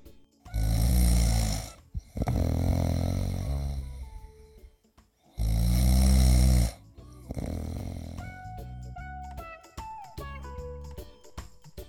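Loud human snoring: deep rattling snores rise and fall in a slow breathing rhythm, then give way to quieter, thinner wheezy and whistling tones near the end.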